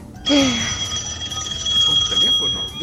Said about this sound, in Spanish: Sonó el teléfono. Agárralo, contesta. Mira a ver qué dice.